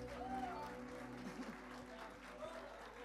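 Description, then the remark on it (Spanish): An audience applauds in praise of the Lord, a steady, dense clatter of many hands clapping, sustained at an even loudness over a low musical hum, with a few faint voices rising through the noise. “aplauso de alabanza al Señor.”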